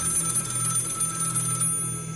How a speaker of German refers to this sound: das Telefon da, war das vorhin auch schon da? Keine Ahnung, aber geh ran. Geh selber ran.